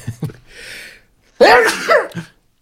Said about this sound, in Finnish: Tulihan se aivastus. Kiitoksia, kiitoksia.